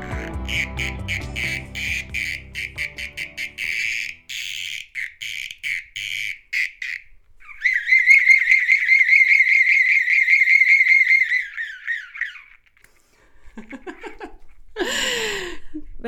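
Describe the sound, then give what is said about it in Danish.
A wooden insect whistle, a small piece of wood carved as a fine little bee and painted with blue wings and stripes, with some resin around its neck, chirps in quick, rapid bursts, then holds a long warbling trill with a buzzy, rasping edge. A short squeaky flourish follows after a brief pause. No talking. “Det er en lyd, som kommer fra en insektfløjte.”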